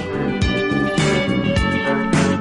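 A bright, upbeat instrumental theme tune plays loudly, with punchy bass hits and sustained melodic tones pulsing in a steady rhythm, like a TV show's opening music.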